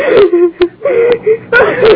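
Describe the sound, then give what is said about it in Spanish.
A woman whimpers and sobs in broken, shaky bursts, her voice rising into strained wails between sharp catches of breath, fairly loud with no other talk. “Deje de lloriquear y se quieta.”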